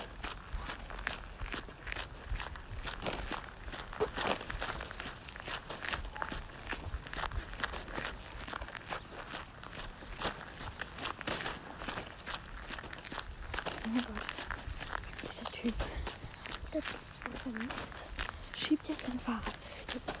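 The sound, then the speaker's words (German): Steady footsteps with a rhythmic rustling and bumping, like a plastic shopping bag knocking against the legs with each stride, fairly loud throughout. “Ich komme von meinen Beinen gegen dieses komische Teil. Gegen die Tüte.”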